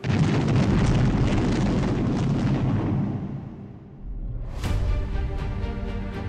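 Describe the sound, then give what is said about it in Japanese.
A huge explosion roars with deep, rumbling power and slowly fades, then a second sharp blast bursts out and rings on with a metallic, resonant tail: the great explosion that sank the Japanese Navy destroyer Shimakaze in Ormoc Bay, Leyte, on November 11, 1944. “島風は、甲幹部の大爆発によって、一瞬にして、その姿を海中に没した。”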